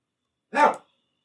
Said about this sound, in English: Dog's still barking. Hold on. I'm going to, I'm going to text somebody. Can somebody come take care of this dog?